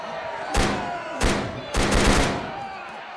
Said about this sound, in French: les coups de feu s'arrêtent, les cris aussi, le président Gapo est délaissé de côté et vous vous retrouvez euh, enfin dehors.